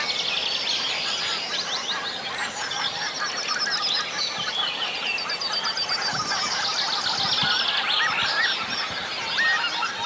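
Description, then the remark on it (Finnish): Northern lapwing and two yellowhammers calling in a dense, continuous outdoor morning bird chorus, one yellowhammer right nearby, with a steady wash of honking geese filling the background and no voices. “Siellä on töyttöhyyppä muun muassa ja sitten keltasirkku.”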